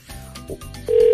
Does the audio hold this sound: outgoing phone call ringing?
yes